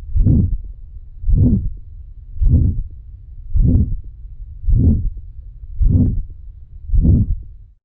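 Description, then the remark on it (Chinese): An abnormal heartbeat with a murmur: seven steady, low thumping beats about a second apart, each smeared with a whooshing rumble instead of a crisp thump, and no voices. “好，那我们现在放的是异常的心音。”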